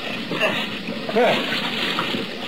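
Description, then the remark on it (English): Rough sea water running high splashing and churning in a steady, fairly loud wash, swelling briefly near the middle, with faint voice-like sounds mixed underneath. “shoved off into a sea that was running plenty high.”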